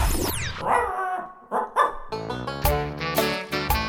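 A dog barks repeatedly, a string of loud, uneven yelping barks with short gaps, some quicker and higher-pitched, following a brief sweeping tone at the start. No one speaks.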